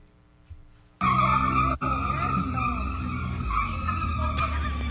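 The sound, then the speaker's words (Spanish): Tires squeal loudly and continuously as Jennifer González arrives at the PNP convention in Río Grande in a Can-Am bearing her logos: a sustained high-pitched screech over a low engine roar, cutting in abruptly after a quiet start with a brief dip midway. “Chillando goma.”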